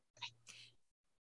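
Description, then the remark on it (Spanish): A single sneeze, a quick two-part burst with a sharp breathy rush, fading into near silence. No one speaks. “Ay, ¿estornudaste ya? Salud.”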